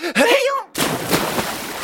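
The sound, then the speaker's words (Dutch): A short vocal cry is followed abruptly by a loud, broad whoosh of water as Frits and Frans jump with a splash into the bath water and dive to the bottom of the bath, the splashing and sloshing continuing until the end. “Frits en Frans sprongen met een plons in het water.”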